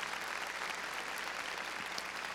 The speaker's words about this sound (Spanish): A ver, démosle palmas fuertes a nuestro Señor.